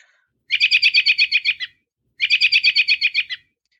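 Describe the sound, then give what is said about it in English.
A bird gives a contact call: two quick bursts of rapid, repeated chirping notes, each about a second long and separated by a short pause. The calls are clear, with no voices or other sounds. “So all birds make lots of different kinds of sounds that serve purposes of contact, like here I am, where are you?”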